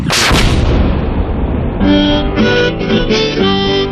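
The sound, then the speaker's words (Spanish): A single loud cannon boom bursts out and rolls off into a rumbling decay, then sustained, horn-like musical tones take over. No one speaks. “Hace algo menos de 100 años la Guardia Nacional en Estados Unidos estaba dispuesta a matar delincuentes a cañonazos.”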